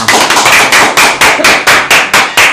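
Loud applause welcoming a special guest, from a crowd clapping in a steady, rhythmic beat, about three claps per second, with a dense hiss of hands between the beats; no one speaks.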